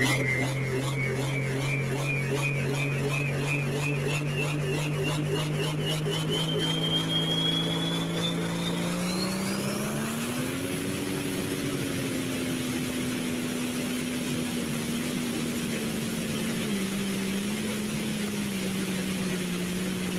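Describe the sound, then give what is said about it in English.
A tractor-pulling tractor's engine roars steadily, its pitch climbing gradually before shifting to a deeper, sustained drone with slight wavering, loud throughout with no talking. “Ladies and gentlemen, this is what makes Tractor Pulling great, right here.”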